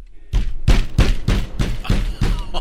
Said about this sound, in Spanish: No, hombre, ya quisieras que que no era el esposo porque cuando estaba teniendo sexo, volvieron a tocar la puerta. Nomás se oía ahí.